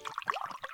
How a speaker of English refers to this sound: You hear that? That's the sound of healthy, safe water from the tap. And that safe water is available nearly everywhere in America, thanks in large part to the Safe Drinking Water Act, which turns 40 this year.